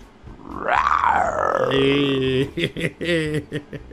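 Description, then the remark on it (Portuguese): A person imitates a lion's roar, a loud drawn-out growling cry that rises and then trails off, followed by a few short voiced sounds. “Olha aqui, quando chamar, você dá um rugido, tá bom?”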